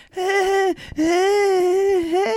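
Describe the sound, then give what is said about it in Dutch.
A voice imitates a baby's whimpering cry: two drawn-out, high, wavering wails with a short break between them, loud, with no talking. “Je lachte jammer als een baby.”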